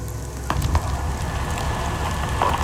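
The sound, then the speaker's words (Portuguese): Steady crackling and popping of a wildfire burning vegetation in the Amazon, with sharp snaps of sparks over a continuous low rumble, moderately loud, no voices. “O farfalhar de fagulhas, infeccioso, feito uma doença.”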